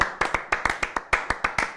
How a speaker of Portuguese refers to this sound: Mas assim, os editores desse programa, nesses 100 dias, olha, uma salva de palmas, porque vocês tentaram deixar o programa bom. Bateu uma salva de palmas aqui pro profissional.